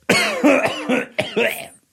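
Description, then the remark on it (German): A loud cough in two harsh bursts: the first a rough, rattling hack, then a second sharp cough after a brief pause, with no talking around it. “für diesen Huster.”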